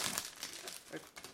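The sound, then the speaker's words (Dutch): Crinkling of plastic cookie packaging as a cookie is taken out, a brief burst of crackly rustles with a few sharper crackles, heard on its own without talking. “Doe dit andere koekje.”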